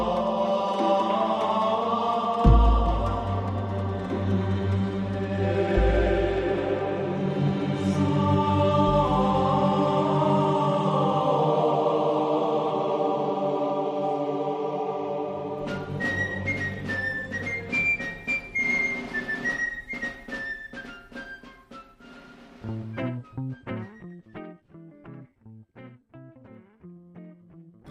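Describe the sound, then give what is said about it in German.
Intro music jam with thick, sustained, slightly distorted tones and deep bass thumps, then bright plucked rhythmic notes under a high melody, thinning out in a fade-out at the end. No voices. “ist ein Fade-Out, da kannst du schon jederzeit anfangen.”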